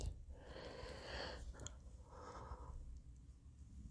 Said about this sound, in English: And, um, yeah, excuse me for yawning there. It's about 6.30 on a Saturday, and I had a little, um, put a little jack in the, the iced tea there, so, uh, yeah, I may not be up very long here tonight.